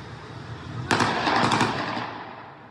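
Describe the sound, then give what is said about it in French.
A sudden volley of rapid, repeated gunshots from heavy weapons cracks out in quick succession in a street at night, fired by people on scooters, fairly loud and echoing, then fades into a lingering rumble. No one speaks. “Ils ont ouvert le feu à de nombreuses reprises.”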